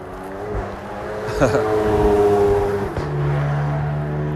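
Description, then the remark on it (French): A car engine revs and roars as someone drives fast on an empty road during lockdown, its pitch rising and then dropping away, while a steady lower drone continues afterward. “Vous voyez, il y a des gens qui profitent du confinement pour taper des pointes avec leur voiture parce qu'il n'y a plus personne sur la route.”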